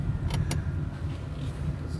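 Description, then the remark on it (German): A steady low rumble of a car interior while the car is driven to another parking spot, with two quick clicks near the start and no one speaking. “ich bin nämlich im Auto”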